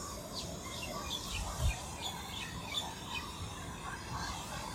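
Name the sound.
birds chirping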